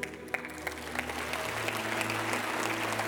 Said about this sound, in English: There's three. Is there anybody else that says, I wanna know Jesus? I wanna know Jesus. Can we give it up for these three?